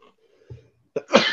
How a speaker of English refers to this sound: Oh, I gotta sneeze.